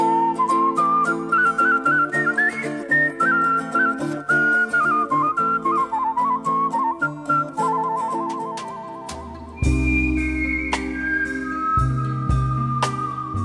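A clear, melodic whistled tune glides and trills over a full instrumental backing, sustained for the whole passage, with the accompaniment swelling louder and deeper toward the end.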